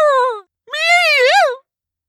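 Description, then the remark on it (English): A human voice imitates the cry of terror of a creature half human, half wolf, in two loud, wavering bursts, the second longer and rising and falling like a wolf's howl, then silence. “It was an awful sound, half human, half wolf.”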